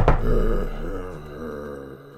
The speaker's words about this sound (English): After a long wait and a no show, I left the table, marched upstairs, and knocked upon his door. There was a groan from the other side.